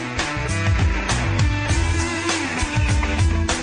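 A short, punchy station jingle for Radio Vallecas 107.5 FM, the third ident candidate, plays at full volume, with dense layered instruments and a steady driving beat throughout, and no one speaking over it.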